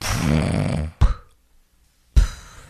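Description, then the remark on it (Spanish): A voice imitates snoring: a rough, rattling throaty drone lasting about a second, then a brief puff, a pause of silence, and another short breathy burst. “La mayoría de las personas roncan por un problema obstructivo a nivel de la garganta.”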